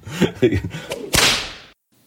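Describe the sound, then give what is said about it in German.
A single sharp whip lash cracks loudly after a few quick swishing sounds, its bright snap trailing off into a short hiss before silence. “Dem Auspeitschen der Flagellation oder Geißelung haftet für gewöhnlich etwas Verruchtes an.”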